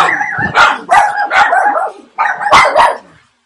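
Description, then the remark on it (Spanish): The speaker's own dogs bark repeatedly in quick, loud bursts, about six sharp barks in two clusters separated by a brief pause, with no voices. “Perdón por esa pequeña interrupción, eso es parte de mi mundo aquí, mis perros.”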